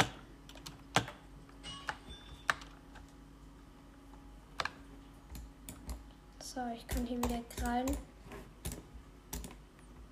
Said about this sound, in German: Boah, ich klicke da so bei der Maus herum